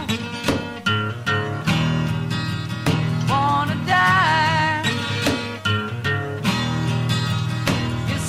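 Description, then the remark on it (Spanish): A rough acoustic demo of a rock song plays steadily at full volume, with rhythmic strummed chords, regular percussive accents, and a wavering melodic line rising over the mix midway. “Vamos a escuchar esta, esta maqueta del …, te va a encantar.”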